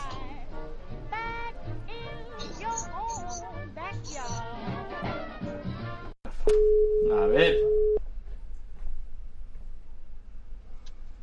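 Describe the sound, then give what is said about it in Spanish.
A telephone busy tone cuts in after people finish talking as the call drops again: a steady, single-pitched beep lasting about a second and a half, fairly loud, with a voice briefly overlapping it. “Pues que se ha vuelto a cortar.”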